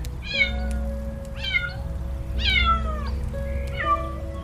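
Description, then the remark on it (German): A frightened white kitten up high meows several times in short, rising-falling cries spaced about a second apart, heard clearly over a steady low hum of background noise. “Es hält direkt vor dem Jungen, der sogleich hoch zu seiner Katze deutet.”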